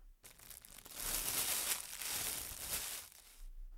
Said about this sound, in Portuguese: Isadora tirou da bolsa uma grande sacola com tintas, materiais para fazer brincos e alguns cogumelos, conhecidos como orelhas de pau.